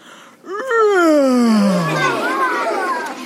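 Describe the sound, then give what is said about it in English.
A storyteller gives a long, drawn-out vocal yawn imitating the gunny wolf of a children's story, the voice starting high and sliding steadily downward for about two seconds, then trailing into a breathy, wavering sigh. “And the gunny wolf yawned a gunny wolf yawn.”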